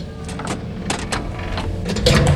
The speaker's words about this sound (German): Die Tür! Endlich!